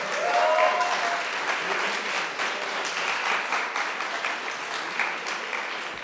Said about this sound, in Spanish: Amén. Dar un aplauso a Jesús.